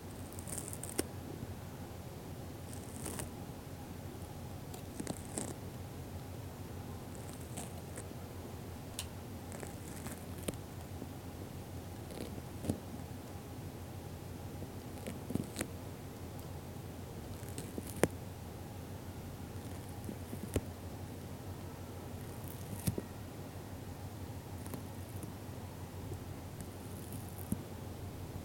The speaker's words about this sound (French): Donc là, on écoute dans la jardinière un escargot. Mange un peu de salade. On est le 10 avril 2020. Impasse Saint-Honoré, quartier de la Blancarde à Marseille.